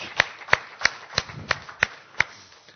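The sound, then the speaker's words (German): Rhythmic applause in even time from an audience for the people watching the livestream, about seven sharp claps roughly a third of a second apart, fairly soft, with no one talking. “Aber ich denke, dass wir den Leuten im Livestream einfach mal ein, vielleicht einen kräftigen Applaus geben könnten, dass sie spüren, dass sie hier mit dabei sind und dass wir uns freuen, dass sie mit dabei sind.”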